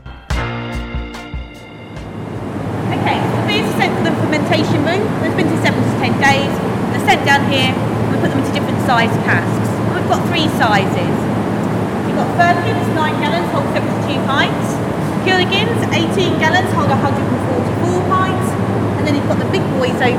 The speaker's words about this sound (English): A word of warning before we continue into the fermentation room. It's very loud in there